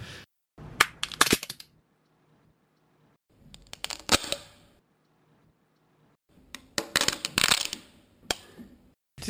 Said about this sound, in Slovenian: jaz pa oglašanje rastlin, recimo teh nekih storžev, ki v suhem vremenu se razpirajo in pokljajo.